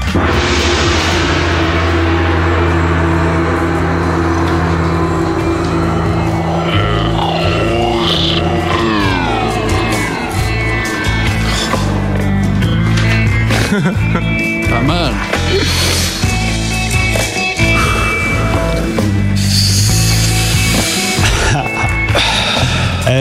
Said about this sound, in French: sympa ta musique. C'est le nouveau …. ça déchire. Je l'ai remixé cet après-midi.